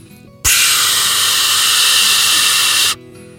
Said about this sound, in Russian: А паровозик так быстро ехал, что уже почти у моста оказался. Но что это? перед мостом, паровозик резко затормозил.